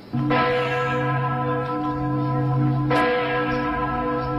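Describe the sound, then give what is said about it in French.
A large church bell, the Tsener Clock, rings out loudly for the evening curfew at 10 p.m. Two strong strikes about two and a half seconds apart each leave a long, rich humming resonance that fills the gaps, with no voices present. “Vous savez pas pourquoi il y a une cloche qui sonne pendant 10 minutes le soir à 10 heures Non, non, non, non.”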